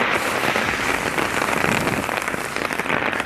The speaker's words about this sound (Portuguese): Aí a chuva tá aumentando, ai que medo, que ódio. Tá chovendo nas minhas pernas.